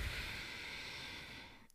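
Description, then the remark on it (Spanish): A long, deep exhale, given as a breathing demonstration for calming the mind. It is a steady breathy rush of air lasting over a second that fades out at the end. It is clear, with no talking. “O sea, ¿cómo calmar la mente? Inhalando y exhalando. Exhalando.”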